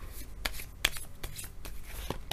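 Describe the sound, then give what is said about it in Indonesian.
Tarot cards being shuffled and drawn: a series of crisp, papery snaps and slides at an irregular rhythm over a soft background, with no one talking. “Kartu yang keluar adalah judgment.”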